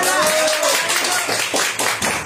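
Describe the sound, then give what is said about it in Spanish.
Loud, dense applause from a crowd, many hands clapping at once in a steady wash of noise, with a brief cheer or voice rising near the start. “Un fuerte aplauso más fuerte”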